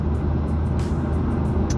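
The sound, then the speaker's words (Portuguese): A steady low rumble of car engines idling and moving at a ranch packed with cars, with a constant traffic drone and a couple of brief hissing swells, and no voices. “Caralho, o rancho tá lotado de carro, meu amigo.”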